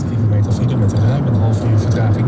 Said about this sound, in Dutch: Maar het is nu vrijdagmorgen en ik zit in de auto op weg naar Den Haag.